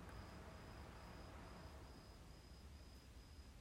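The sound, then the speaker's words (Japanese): Steady, high-pitched cricket chirping trills on without pause against a soft background hiss, with no voices present; crickets chirping in autumn. “ということでコオロギも鳴いていますが”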